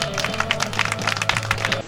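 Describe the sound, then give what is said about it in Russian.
An audience at the ATR forum applauds: many overlapping claps form a dense, steady patter of crisp hand-slaps with a low, droning tone underneath throughout. “Друзья, аплодисменты!”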